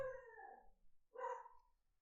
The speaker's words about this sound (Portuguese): E o cão está a ladrar.